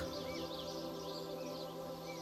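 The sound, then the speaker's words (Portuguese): Faint birds chirp and twitter in a soft outdoor ambience, with a few short calls scattered over a steady, sustained tonal hum; no one speaks. “Esses sons, como o canto dos pássaros ou o murmúrio das árvores, trazem uma sensação de calma e serenidade para o seu coração.”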